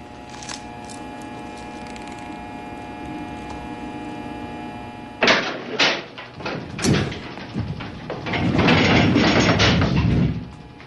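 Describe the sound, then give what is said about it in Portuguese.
An old 1970s-era x-ray machine in a film: a steady electrical hum gives way to loud mechanical clanks and bursts, ending in a sustained harsh whirring roar. “Mas ainda o raio-x ainda era do inferno. Olha o barulho que essa desgraça faz, velho.”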